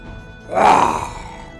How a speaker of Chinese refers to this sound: 老虎对着武松大吼一声后，再一次的跳起，扑向武松。